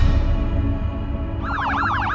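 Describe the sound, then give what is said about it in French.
Loud emergency sirens from police and fire engines start up partway through, wailing in rapid rising and falling sweeps over a steady low traffic rumble. “Le bébé se à la porte à clé, en attendant que la police et les pompiers arrivent.”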